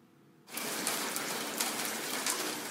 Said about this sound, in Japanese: その日、雨は夜になっても止まなかった。